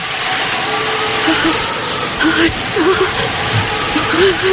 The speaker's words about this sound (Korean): 자, 음향 감독님, 겨울에 그 매서운 바람 소리 한번 들려주세요.